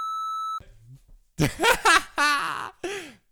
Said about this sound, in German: kannst du auch piepen. Das ist doch die große Piep-Folge.